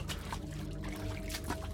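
Water trickles and pours steadily over a low mechanical hum, with a few brief splashy surges, in a flooded engine room where brackish, oily, heavy water covers the whole floor; no one speaks.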